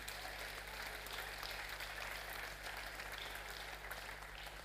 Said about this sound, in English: yeah, you can clap if you want to.